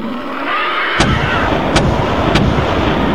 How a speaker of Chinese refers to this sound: 小夫面对着俩人坐在地上，正举着空气炮射击。